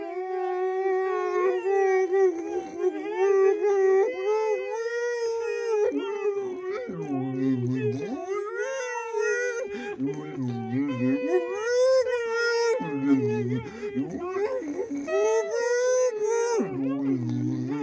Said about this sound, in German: Will der Hund im Ohr es besser wissen? Jault der Wind mit dem Hund? Ist der Hund ganz kleinlaut?